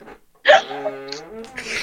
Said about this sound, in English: okay, okay, you redeemed yourself, but I farted that time.